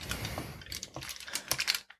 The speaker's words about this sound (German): Also gut, ich nehme das große Messer und schneide Toastscheiben in Würfel. In Würfel.